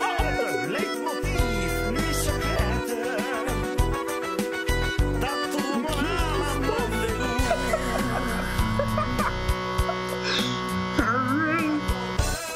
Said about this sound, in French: envoie le nom de ta chanson au 55 300 pour avoir un sonnerie de téléphone